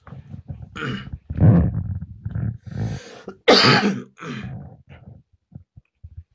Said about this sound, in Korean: 근데 완상 7인 이후 7시 이후부터 계속 지금 기침이 나요.